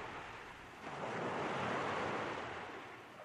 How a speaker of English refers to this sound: I was now alone in my little boat. The waves were strong and high.